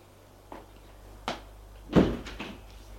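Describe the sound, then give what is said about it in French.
Hotel elevator doors open on arrival at the second floor: a couple of light clicks, then a heavier mechanical thunk and a brief rolling slide over a low steady hum. “Au deuxième étage, ils sortent de l'ascenseur.”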